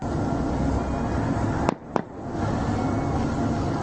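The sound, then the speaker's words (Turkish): Two sharp gunshots crack in quick succession, a fraction of a second apart, as Greek security forces fire at migrants in an inflatable boat on the Meriç River, cutting through a steady roar of wind and water noise that fills the whole recording. “Su üstünde çığlıklar, arbede silah sesleri.”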